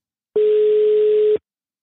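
A single steady telephone ringback tone from an outgoing call that goes unanswered sounds for about a second, clear and fairly loud over faint line hiss, then cuts off into silence. No one speaks.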